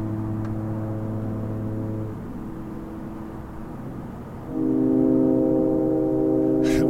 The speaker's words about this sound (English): Low notes. Like foghorns. There's a low note for you.